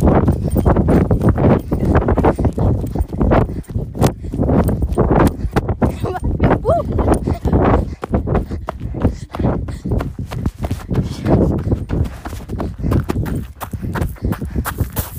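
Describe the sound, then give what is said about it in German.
Fast, steady running footsteps pound out a continuous rhythm of sharp, loud thuds throughout, with a brief vocal grunt partway through. “Und ich muss jetzt rennen.”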